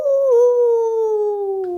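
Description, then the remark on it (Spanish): A person imitates a wolf howl: one sustained, loud vocal tone lasting nearly two seconds, sliding slowly downward in pitch, with no other sounds around it. “Vino el lobo ¡Au!”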